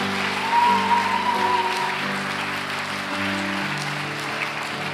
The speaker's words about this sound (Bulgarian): О, ако ръкопляскаш, ръкопляскаш, като че го вярваш.